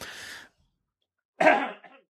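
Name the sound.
cough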